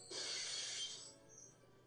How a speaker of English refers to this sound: Why were you looking up into shattering glass?